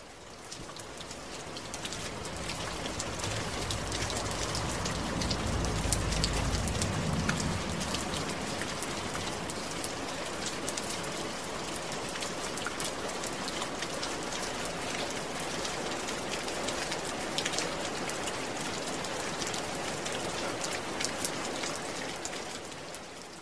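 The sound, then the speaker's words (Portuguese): Steady rain pours down continuously, a dense hiss of countless drops striking surfaces, with a low rumbling swell early on. No voices, just the constant, moderately loud downpour throughout. “Então, antes pra gente voltar e terminar o resto dos itens e o podcast, escute esses segundinhos de barulho de chuva.”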